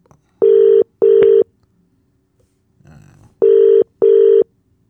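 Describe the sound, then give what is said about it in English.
A telephone ringback tone repeats in a steady double-burst pattern as a phone call is placed: two beeps, a pause with faint rustling, then two more, loud. “It's ringing. He might not be free to talk.”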